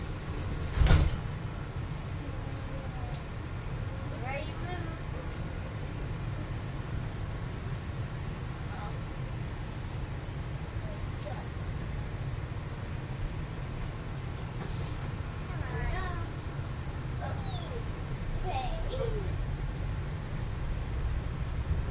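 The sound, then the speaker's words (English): Inside a Walt Disney World monorail train as it departs, traveling to the Transportation and Ticket Center: a steady low rumble with a sharp thump near the start, and faint whining tones that rise and fall as the train moves. “Welcome aboard the Walt Disney World monorail system traveling to the Transportation and Ticket Center.”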